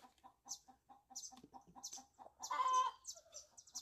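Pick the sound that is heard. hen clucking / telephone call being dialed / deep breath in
hen clucking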